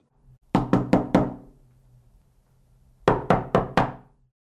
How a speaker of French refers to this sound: Mélie prend l'initiative de frapper de nouveau, cependant un peu plus fort